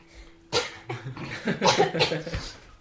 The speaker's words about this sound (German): Der Huster war wichtig.